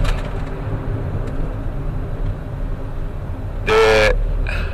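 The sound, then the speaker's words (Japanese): Heavy road traffic, many cars, rumbles past in a steady, continuous roar, picked up on a voice recorder, broken near the end by a loud, short horn blast and a brief fainter toot. No one speaks. “はい今ちょうど車がですねたくさん来ましてすいません、えー、ちょっと話が止まりました”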